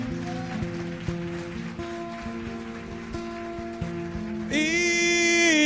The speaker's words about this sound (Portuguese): Dê um aplauso bem forte ao Senhor. Pode ser melhor, pode ser melhor, pode ser melhor.